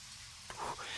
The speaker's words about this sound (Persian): چه بارونی دوباره تون کرده